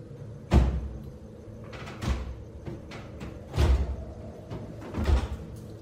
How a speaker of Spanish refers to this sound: escucharon como una puerta de golpe se cerraba a lo lejos.